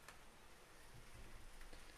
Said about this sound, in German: Es regnet.